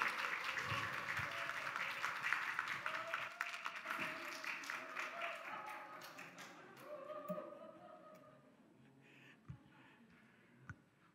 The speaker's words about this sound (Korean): 우리 격려하는 차원에서 뜨거운 박수로 환영해 주시기 바랍니다.